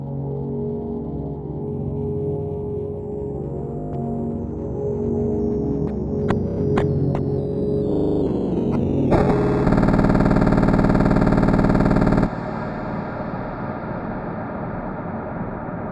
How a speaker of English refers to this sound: Eventually, the track slows down to a crawl, and clipping and distortion drown the song out into pure emptiness.